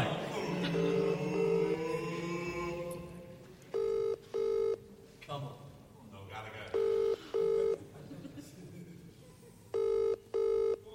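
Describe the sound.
Three pairs of sharp, electronic telephone keypad dialing tones beep out at steady intervals, clear, as a phone number is dialed, with muffled talking and background chatter filling the gaps between them.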